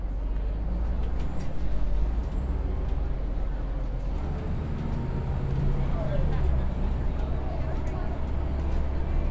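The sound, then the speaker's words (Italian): Steady low engine rumble fills the inside of a moving, busy city bus in central Florence, Italy, on a Saturday around 11 in the morning, with road noise, occasional clicks and rattles, and indistinct passenger chatter murmuring throughout. “Ma oggi è sabato e in centro a Firenze di gente sull'autobus ce n'è”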